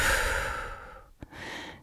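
A long, deep, breathy exhale through the mouth fades out, followed after a short pause by a soft new breath drawn in through the nose, during a relaxation breathing exercise. Quiet and unhurried, with no talking.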